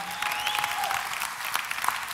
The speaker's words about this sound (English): Y'all better clap with me, somebody.